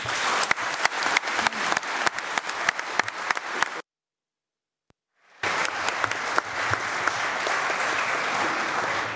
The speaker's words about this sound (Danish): giv en stor hånd.